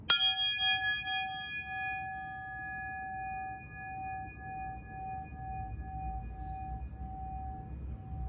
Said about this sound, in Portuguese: Vocês repararam que o som do sino hoje estava um pouco diferente? Que eu bati aqui um pouco no meio. Eu vou bater ele na ponta para você ver a diferença, ó, sentir, vê? Que normalmente ele é aqui na ponta, ó.